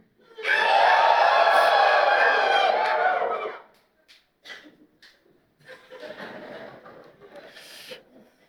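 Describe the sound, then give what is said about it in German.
A crowd, practicing cheering on a count of three, bursts into loud cheering and whooping for about three seconds, then it breaks into scattered shouts and laughter before a softer wave of cheering swells again. “Ich zähle auf drei, dann möchte ich, dass du jubelst, wie du noch nie gejubelt hast.”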